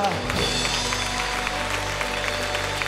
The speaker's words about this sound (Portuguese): Aleluia, aplauda Ele, aleluia.